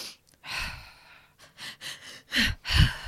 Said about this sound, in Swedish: Till exempel att ett icke mättat andetag kanske låter så här.